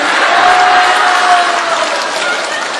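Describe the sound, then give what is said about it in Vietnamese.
A crowd claps steadily and densely, a loud wash of applause filling the whole moment without pause, with a faint background murmur and no clear voice on top. “rõ ràng vỗ tay là kích thích đó nghe quý vị vỗ tay là kích thích đó nghe”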